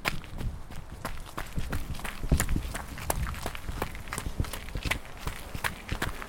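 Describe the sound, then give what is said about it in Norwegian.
Steady footsteps of a person walking out from work at quarter past nine, on a hard outdoor surface, fairly loud, with a regular rhythm of many steps against faint ambient background noise and no talking. “spaserer ut fra jobb i dag.”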